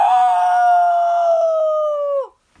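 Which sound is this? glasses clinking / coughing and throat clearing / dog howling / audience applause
dog howling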